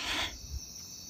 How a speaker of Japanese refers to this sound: 皆さん聞こえますか虫さんの、虫さんの音を聞いてくださいね。